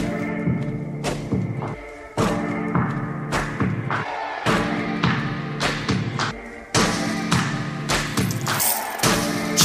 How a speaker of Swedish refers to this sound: Och vi ska ta och lyssna på eh, senaste singeln tänkte jag.